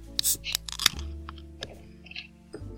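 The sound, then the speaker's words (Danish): A beer can is cracked open in a small basement studio: a few small metallic clicks, a sharp pop of the tab, then a faint fizzing hiss and light handling sounds, with no one talking. “jeg har sat mig ned i mit lille kælderstudie og er klar til at knappe den første øl op. Nu er det jo en dåse, så lyden kommer jo nok med.”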